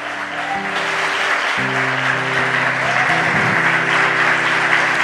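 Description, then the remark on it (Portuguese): An audience bursts into sustained, dense applause, steady and loud throughout, with sustained organ or keyboard chords playing underneath. “E só quem crê que recebe aplaude.”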